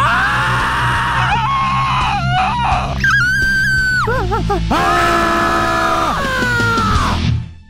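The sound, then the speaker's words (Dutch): A voice imitates the scream from Munch's painting The Scream: a series of loud, drawn-out wails that waver and bend in pitch, one after another with no talking in between. “De schreeuw. Eindelijk. Voorzien van klank.”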